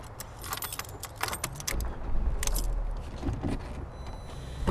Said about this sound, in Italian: Attraversiamo Via della Chimica in auto, guardinghe, perché sappiamo che non potremmo essere qui e da un momento all'altro i guardiani verranno a bloccarci.